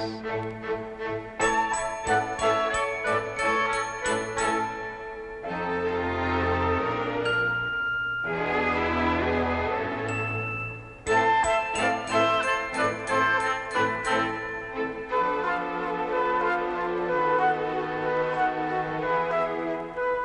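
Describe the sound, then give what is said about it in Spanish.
Bright, tinkling little bells ring in quick rhythmic bursts, alternating with smoother sustained musical passages. The chiming is close and fairly loud, with no voices. “Y si eres curiosa, verás cupidos color de rosa que al agitar sus blancas alitas dejan sonido de campanitas.”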